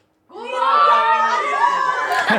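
A group of guests at a home shout a greeting together into a held-out microphone, a loud, sustained chorus of mixed voices that starts abruptly and holds for about two seconds with some ragged, uneven timing.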